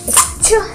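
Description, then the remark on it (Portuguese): A quick pair of sharp, breathy bursts, like a sneeze, fairly loud, with a short voiced tail after the second burst. “saúde, saúde, saúde”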